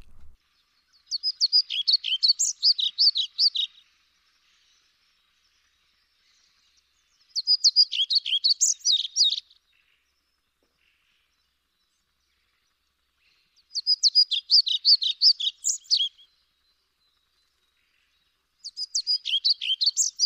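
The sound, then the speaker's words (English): Pied flycatcher song: four separate bursts of high, sweet, rapid warbling notes, each lasting a couple of seconds, with quiet pauses between them and no voices. “call of the pied flycatcher is short and soft, which turns harder and more frequent in times of danger, sometimes combining with a clicking.”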